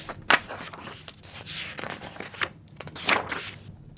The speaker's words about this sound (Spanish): Él sigue pasando hojas, pero ya no lee.